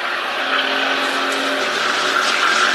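A race car coming out onto the track; its engine roars steadily and loudly throughout, a broad rushing drone with a low humming tone that drifts slightly downward, with no one talking.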